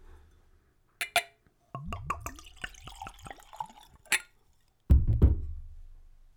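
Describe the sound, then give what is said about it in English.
Liquor glugs from a brand-new twist-top bottle into a glass in a quick, bubbling run that rises in pitch as it fills, framed by sharp glassy clinks before and after and a couple of dull thuds. “And now for a pour.”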